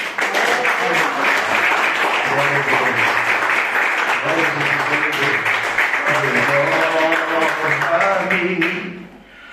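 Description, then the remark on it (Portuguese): A church audience applauds steadily and loudly for about nine seconds in praise of the Lord, a dense wash of clapping with voices singing or calling out over it, before it cuts off abruptly at the end. “Eu agradeço a oportunidade, as palmas que louvo o Senhor.”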